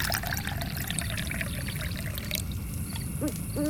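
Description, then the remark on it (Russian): Coffee pours steadily into a cup, a continuous splashing trickle lasting a few seconds with no one talking, ending in a couple of faint higher tones. “Тогда чайка берет и наливает и ей кофе.”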